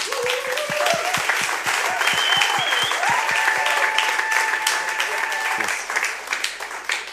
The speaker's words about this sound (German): Aber es ist nicht nur die Aufgabe von unseren Wackhammer, ja, können wir mal Applaus geben.